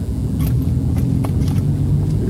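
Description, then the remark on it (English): Steady low rumble of a car driving along a busy city street in Israel, with taxis and buses everywhere, people walking in the road and cars parked everywhere. A few brief clicks and ticks sound over the continuous road noise. Fairly loud, with no talking. “Taxis are everywhere buses are everywhere.”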